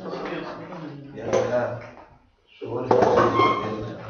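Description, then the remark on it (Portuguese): A creaking chair is shifted and swapped for another, with scraping, knocking and shuffling in two bursts separated by a brief pause, and faint murmured voices underneath. “vai trocar ali, né? Tá rangendo. Então, no pão nosso, vamos trocar aqui rapidinho.”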